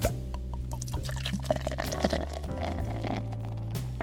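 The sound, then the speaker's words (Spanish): A beer is opened and poured, with a few sharp clicks followed by liquid gurgling and splashing into a glass, over a steady low humming background. “Estas son las noticias de ayer 2023 y empiezan así, con el destape de una birra.”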